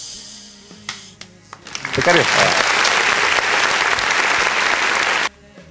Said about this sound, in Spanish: Aplausos.